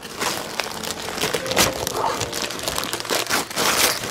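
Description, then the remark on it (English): Continuous crinkling and rustling of gift wrap being torn open from a present in a stocking, a comic, Quasar number two, fairly loud, with irregular crackly bursts throughout and no talking. “What do you got gift wrapped in that stocking there,”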